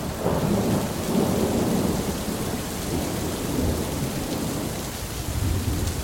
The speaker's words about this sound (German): Nach dem Tunnel ging der Schnee wieder in Regen über. Als wir dann Richtung Nischützo kamen, zog erneut ein Gewitter auf.